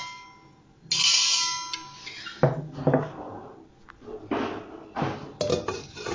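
A pot lid clatters and scrapes among pots and pans, with a bright metallic ring near the start followed by several clanks and rattles, no one speaking.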